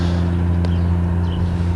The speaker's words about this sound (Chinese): 哦，现在有飞机要起，是起飞还是要降落？